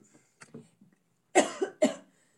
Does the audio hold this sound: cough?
yes